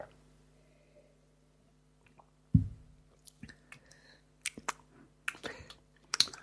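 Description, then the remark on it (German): Wet lip smacking while someone drinks sparkling water, quiet and irregular, a scattering of soft clicks and mouth noises after a low thump, with no one talking. “Was, was, schmatzt du denn da?”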